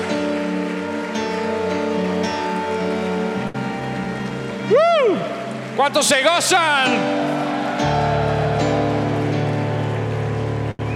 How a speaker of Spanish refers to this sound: En el nombre de Jesús, elevamos una ofrenda de palmas a los cielos, porque tu dádiva ha sido grande y generosa, porque has visitado este lugar. Fuerte el aplauso a Cristo.